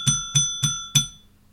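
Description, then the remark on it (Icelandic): A small teacher's desk bell is struck four times in fairly quick succession before a draw, each bright metallic ding ringing briefly before the next, with the last one fading out. “Við erum að fara í dráttin Herru bjölluna Er ég með svona bjöllu að kennara borðin í hómið?”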